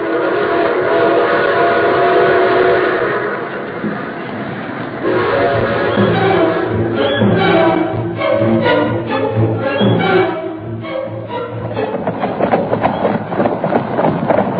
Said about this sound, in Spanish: Un momento después, el tren carguero número 360 seguía su marcha hacia Monterrey, dejando en el empalme tan solo los comentarios de una nueva hazaña de Porfirio Cadena.